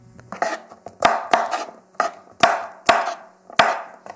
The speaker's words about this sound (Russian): Помойте огурцы и вытрите насухо. Отрежьте концы с обеих сторон и нарежьте огурцы на 4 части, а затем каждую из них на 6 долек. Если у вас не такие большие огурцы, то действуйте по ситуации.